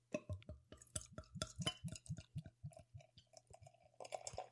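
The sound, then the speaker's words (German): Beer is slowly poured into a glass: a quick run of rhythmic, hollow glugs from the bottle, easing off before a soft fizzing hiss of foam at the end. No one speaks. “Ich möchte es in den Händen halten und wiegen und langsam einschenken, so wie jetzt.”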